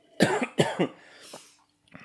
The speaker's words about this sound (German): ich war, ich war, ich war letzte Woche krank. Das kann ich ja, erzählen. Stimmt, ich war, deswegen huste ich immer noch.